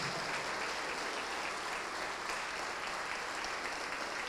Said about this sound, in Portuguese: Vamos aplaudir mais ao nome de Jesus.